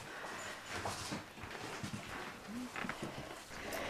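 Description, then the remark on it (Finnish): Faint rustling and scratching from dogs, with scattered short scrapes over a steady hiss and a brief low whine-like tone midway; no one speaks. “vähän kuuluu tuolta rapinaa, mutta ne taitaa olla ihan ulkokoiria kuitenkin.”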